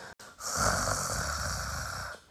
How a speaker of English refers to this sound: Passing by the house, a huntsman heard strange snoring sounds. 有一个猎人啊，经过房子，听见了很奇怪的打呼声。